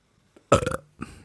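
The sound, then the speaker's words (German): A loud burp bursts out with a rough, gurgling rasp, followed by a brief softer tail of breath or throat noise a moment later. “Jetzt rülpsen.”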